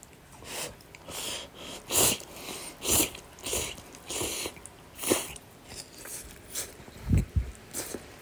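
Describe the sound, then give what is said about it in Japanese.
Wet chewing and slurping of cup noodles topped with special hot chili oil, in a steady rhythm of mouth sounds roughly every second, with a louder, deeper bite or gulp near the end. No one speaks. “では、咀嚼音がしますのでご注意ください。”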